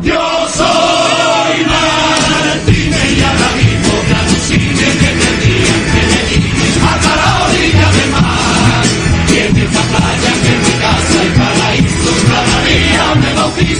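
A choir from the Cádiz carnival in Spain performs in the semifinals, loud and continuous, with massed voices and accompaniment filling the space while an enthusiastic audience cheers and shouts throughout.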